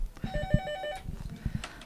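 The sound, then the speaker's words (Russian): A telephone rings with a rapid electronic trill, a bright pulsing tone repeating for about a second, in a large, busy polyclinic, with low background bustle and clatter. “А вот, вот, вот, вот что характерно для этой поликлиники, это телефонные звонки.”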